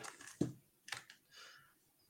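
A few scattered taps on a computer keyboard, quiet, with uneven gaps between the key clicks and no one speaking.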